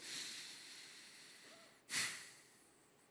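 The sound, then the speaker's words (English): A soft, airy breath, deliberately breathed into the microphone, hisses, then a single sharp, forceful inhale or snort-like breath bursts out before fading back to quiet. No one speaks. “If you're still breathing, you still have purpose period.”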